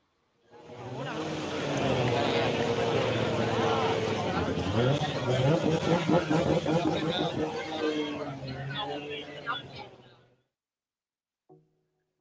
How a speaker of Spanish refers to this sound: Así es como suena este monoplaza de combustión con 90 caballos de potencia.